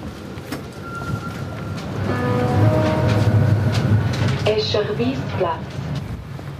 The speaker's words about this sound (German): Wir verlassen den Hauptbahnhof und fahren mit dem Tram einige Stationen stadtauswärts.